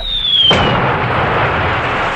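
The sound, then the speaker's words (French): A high whistle slides slowly downward, then a single loud explosion bursts and leaves a dense, roaring rumble that slowly fades. No voices can be heard. “C'est à ce moment qu'une explosion projeta plusieurs de ses hommes au loin.”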